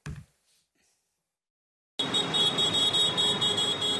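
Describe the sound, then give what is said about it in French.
After a short silence, tractor horns suddenly blare in a loud, sustained, high-pitched honk over a dense rumble of engines and background noise that continues to the end, as dozens of farmers protest with their tractors in the streets of Senlis. “Des messages visibles devant leurs tracteurs et des coups de klaxon.”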